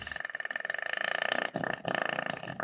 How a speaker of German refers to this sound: Das bin nicht ich. das ist die Milch, die jetzt in diese Löcher fließt und daraus schießt. Bisschen wie so ein, nicht wie ein Geysir, aber wie so ein, ja, wie so ein Pups.